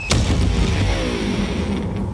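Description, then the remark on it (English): A sharp, loud crash as an electric guitar smashes on impact, followed by a sustained, jangling ring of strings and resonant body that slowly fades. “An electric guitar”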